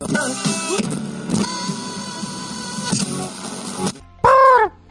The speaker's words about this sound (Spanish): Es un canto corto, ¿no? Cortito. Y ¡Por! es típico de las aves de pantano que vuelan poco, ¿no?